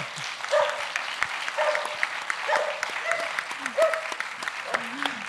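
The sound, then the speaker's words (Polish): Steady audience applause with a dense patter of clapping that lasts throughout, while a voice speaks over it now and then. “ona też by była świetnym kierownikiem produkcji, który właśnie w takim reality show mówi, kiedy mają pojawiać się braza, brawa i ona się świetnie tutaj sprawdza.”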